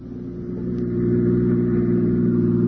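A car engine drones loudly, its steady low hum building slightly in intensity as it drives along the Old Mill Road, a single-lane dirt road past the Gowanda Cemetery, on a Sunday evening on the way to a wedding, with no voices over it.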